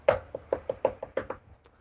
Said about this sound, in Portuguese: Um dia, o lobo apareceu e bateu na porta da casa de palha